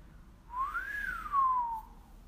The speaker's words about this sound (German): Das Training für die Bauchkapsel ist ganz simpel, nämlich du und ich, wir fangen jetzt mal an zu pfeifen. Jetzt machst du es einfach mal